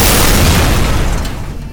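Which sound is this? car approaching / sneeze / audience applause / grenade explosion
grenade explosion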